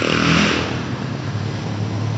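A motorcycle engine roars loudly, then its tone drops and fades into a steady rumbling wash of traffic noise as it pulls away.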